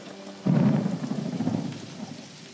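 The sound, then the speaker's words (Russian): Steady rain hisses throughout while a deep roll of thunder rumbles in suddenly and fades over a couple of seconds. “в довершении ко всем этим бедам, необычайно дождливая погода, длившаяся на протяжении трех лет, вызвала по всей стране голод.”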